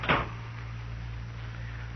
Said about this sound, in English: Shut the door, Chester.